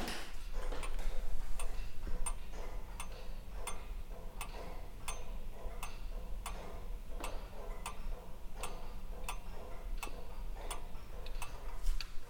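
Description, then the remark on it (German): A small pendulum wall clock, a Dachluhr (the smaller relative of the lantern clock), ticks steadily and clearly, with crisp, evenly spaced ticks roughly every half second against a low background hum, with no talking. “Im Zimmer nebenan hängt neben anderen Laterndeluhren auch eine Dacheluhr. Das ist sozusagen der kleine Bruder von der Laternenuhr.”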